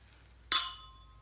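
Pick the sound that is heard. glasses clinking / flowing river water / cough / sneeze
glasses clinking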